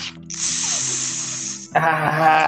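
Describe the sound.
A voice imitates a motorcycle exhaust with a loud, continuous buzzing hiss that shifts into a rougher, throatier rasp near the end, lasting a couple of seconds with no other sounds.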